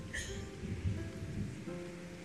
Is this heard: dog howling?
no